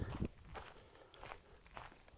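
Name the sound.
footsteps walking away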